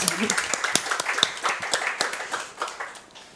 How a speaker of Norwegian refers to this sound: Tusen takk for at du kom. Ja. Veldig bra. En applaus.